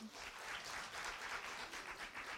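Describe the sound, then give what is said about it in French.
An audience applauds and cheers when asked to make noise if they say one should always tell the truth, a dense, steady wash of clapping that holds at an even, fairly loud level for about two seconds without any clear break. “Et vous, juste pour nous faire une idée, qui dit qu'il faut toujours dire la vérité euh, applaudimètre, je sais pas, enfin, faites du bruit quoi.”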